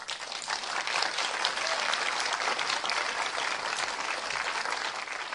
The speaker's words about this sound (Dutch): Geef me applaus jongen.